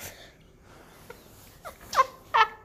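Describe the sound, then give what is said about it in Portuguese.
A dog near a bed makes a few short, breathy whimpers and snorts, growing a little louder toward the end, against a quiet background hum. “Tem, tem um cachorro cuidando da minha cama.”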